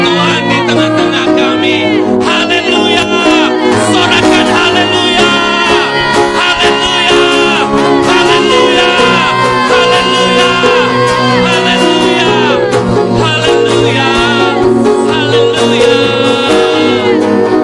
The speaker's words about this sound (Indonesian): Hari ini ada setiap nyanyian pujian, ada sorak sorak yang membahana, ada tepik sorak, ada tepuk tangan menyatakan kebesaran